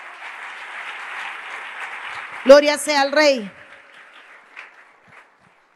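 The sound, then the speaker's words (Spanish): An audience claps steadily for the Lord, a dense wash of hand claps, and a man's voice rises loudly over it partway through before the applause fades into scattered claps. “Si puede darle palmas al Señor, désela fuerte.”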